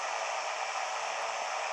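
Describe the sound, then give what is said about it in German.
A simulated aircraft engine in a flight simulator game roars with a dense, steady hiss-like rumble as the plane starts up for takeoff, holding at a fairly even loudness throughout, with no voices present. “Ihr hört's, der Motor wird immer lauter.”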